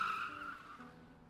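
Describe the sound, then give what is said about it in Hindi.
A car pulls over to the side of the road in the rain and brakes to a stop, its tires giving a short, strained squeal that holds steady and then fades over about a second, with no voices. “हाँ, एक मिनट गाड़ी साइड में रोक लो”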